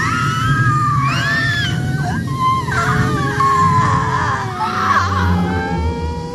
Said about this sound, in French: la lumière baisse, on entend des cris.